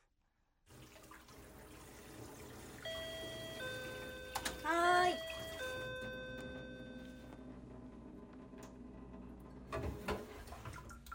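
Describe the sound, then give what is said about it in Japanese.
A kitchen tap runs in a steady hiss while a cup is being washed. A bright two-note chime rings partway through as a visitor suddenly arrives, a voice briefly answers, and the water is turned off. “突然の来客の時の音なるほど台所でカップを洗っている時に誰か来て水を止めてという音ですじゃあお届けします”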